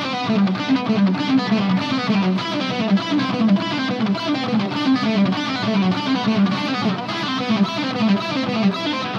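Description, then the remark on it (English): Distorted electric guitar through a Kemper preset plays a fast, continuous run of pull-off notes with delay and reverb trailing behind, loud with no talking over it. “I've just got, a, again, one of the presets I always use on my Kemper and some delay and reverb on there.”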